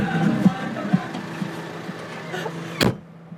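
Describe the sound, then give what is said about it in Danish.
A red tractor's engine idles in a field at an agricultural school with a steady, low, humming drone and a few soft knocks, then a sharp clack near the end as the rumble suddenly falls away. “Jakob har lige sat sig op i den røde traktor.”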